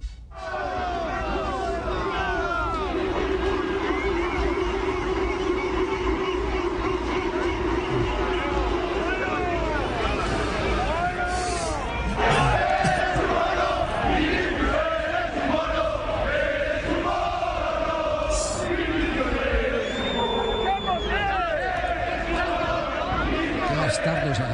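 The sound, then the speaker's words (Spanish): A large crowd chants together in chorus, many voices overlapping in a loud, continuous wall of sound that rises and falls in pitch for the full stretch. “con coro y todo.”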